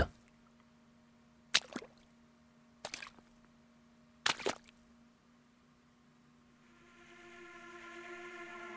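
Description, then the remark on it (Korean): Three slow, wet squelching footsteps, evenly spaced, of someone walking across a room's floor pooled with water, over a low steady hum, followed by an eerie droning tone that gradually swells. “뭐라 말로 표현하기 힘들지만 물이 잔뜩 고인 방바닥을 누군가 걸어오고 있다는 것만은 분명했다.”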